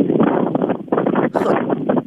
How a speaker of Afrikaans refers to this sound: dit klink asof jy iewers in die wind staan.